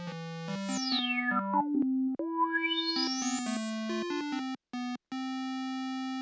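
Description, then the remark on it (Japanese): A buzzy analog synth riff on a minilogue synthesizer plays alone while the low-pass filter knob is turned to cut the high frequencies, muffling it to a dull thud, then turned back to open it to full brightness, ending in short stabs. “まあ、カットするというつまみなんですけれどもこれをいじることによってはいえ今ちょっとつまみを、えー、回して高周波をカットを最初にしていってでさらに、えーまあ、元に戻していったという感じですね。”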